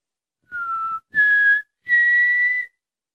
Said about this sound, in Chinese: 莫扎特吹起了口哨。